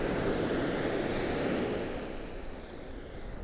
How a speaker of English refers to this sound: something about the big, vast expanse of the ocean and the rhythm of the waves and the tides. It's just special.